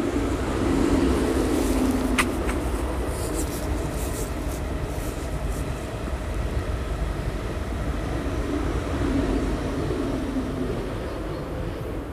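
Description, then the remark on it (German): An ICE high-speed train rushes past a station, a steady loud roar of wheels and air with a brief sharp squeal early on, sustained for the whole stretch without anyone speaking. “Oh, da kommt er schon. Ah ja. Der ICE. Jetzt machen wir kurz mal Atmosphäre für eine Sekunde.”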